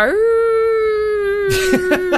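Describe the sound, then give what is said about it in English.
A voice imitates a howl: one long, steady, mid-pitched wail held for over a second, then breaking into a few short, wavering yelps toward the end. “I heard something howling up in the well”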